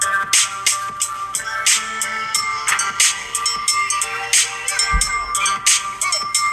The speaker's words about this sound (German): Ja, aber nachher, wenn du den Beat droppt, musst du die Glocke hören.